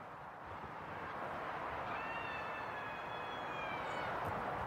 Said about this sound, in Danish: Det kan man godt høre. Man kan sagtens høre det hun skriger mod vinden, ja.